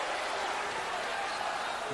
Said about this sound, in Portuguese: A torcida balança, a torcida faz festa, a torcida canta.